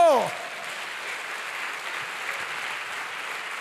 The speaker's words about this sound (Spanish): Fuerte ese aplauso.